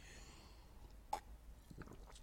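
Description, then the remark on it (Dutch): A quiet sip of water: a single soft click and slurp, then a few faint swallowing and mouth sounds against a hushed background, with no talking. “Ik moest even een slokje water nemen.”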